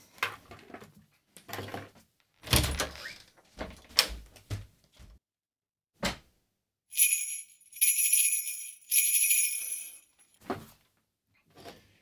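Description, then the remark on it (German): Rustling and tapping as a small cardboard advent calendar door is worked open, followed by a few seconds of bright crinkling and scratching, then scattered soft clicks. “Ich muss nochmal an die Tür.”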